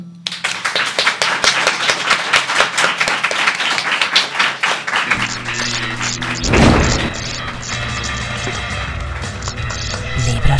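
Loud audience applause welcoming a guest onto the show, with dense rapid clapping, which halfway through is joined by swelling music with a low booming beat, the clapping continuing underneath.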